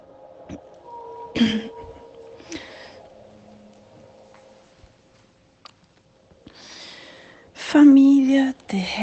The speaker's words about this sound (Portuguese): Ai, hoje minha tosse tá pior.